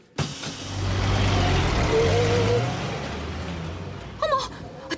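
bus pulling away

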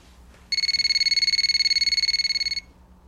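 telephone ringing

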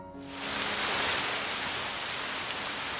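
rain falling

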